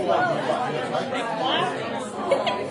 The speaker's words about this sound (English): Well, sounds like there are some great conversations going around.